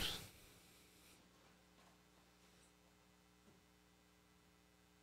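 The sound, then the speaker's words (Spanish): A steady, quiet electrical hum with faint buzzing overtones drones on unchanged after a brief burst of noise at the start, with no one speaking. “Es que empecé a escuchar una interferencia y después.”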